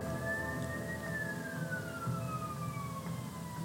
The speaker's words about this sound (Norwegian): Nå kommer det faktisk en ambulanse forbi akkurat idet jeg spiller inn her. Det var veldig rart. Wow. Det var veldig rart. Ok, Jeg vet ikke om du hørte det, men akkurat når jeg spilte inn her nå, så kom det faktisk en ambulanse kjørende forbi.